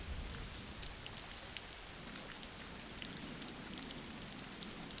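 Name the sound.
rain falling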